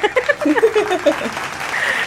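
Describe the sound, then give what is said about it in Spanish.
A steady wash of clapping, an applause effect added in editing by the control room, runs for about two seconds at moderate loudness, with some voice-like sounds mixed in over it. “El de controles, me agrega unos aplausos aquí.”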